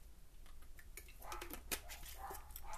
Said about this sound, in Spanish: Perdón por el perro, es que estamos tratando unos sonidos nuevos y pues vamos a ver cómo surge con esta audiencia, quien me va a escuchar.